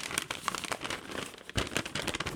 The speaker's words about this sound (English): Let me hold this paper up to the microphone so you can see it.